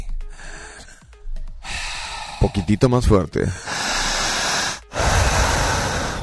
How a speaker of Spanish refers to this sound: Corre tiempo, empezamos a respirar. Al mismo tiempo, fuerte.